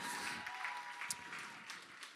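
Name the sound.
audience applause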